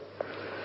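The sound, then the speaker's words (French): A basset artésien dog named Titus sniffs, a short, breathy snuffling against a steady hiss, with one slightly louder puff near the start; no one speaks. “Et euh, Titus, qui est, là, à ma droite, est un basset artésien.”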